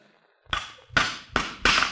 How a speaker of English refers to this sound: Is uh, that the way you pound nails? Mm. Bend a lot of them, I bet.